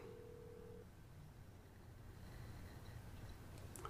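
A single steady ringing tone of an outgoing phone call sounds for just under a second, fairly faint, then gives way to low background rumble and hiss with no one speaking.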